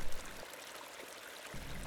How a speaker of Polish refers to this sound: Dźwięki, które towarzyszyły dzisiejszemu spotkaniu, to rzeka, którą miałem przyjemność spotkać podczas jednego ze spacerów.